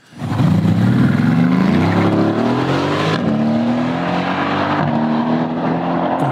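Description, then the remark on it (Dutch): A powerful AMG (Mercedes-Benz tuner) sports car engine revs hard and holds a loud, rising growl, its pitch climbing in steady steps with brief shifts, running continuously without any talking. “En nu is het uitgegroeid tot een sportief automerk van formaat. Ja, AMG, daar gaat het over.”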